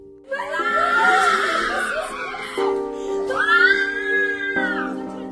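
A Palestinian mother's raw, sustained wailing scream at her reunion with her daughter, who was released from an Israeli jail in the Hamas hostage deal; high-pitched and harmonic, rising and falling in two long cries over several seconds with a steady tonal layer beneath.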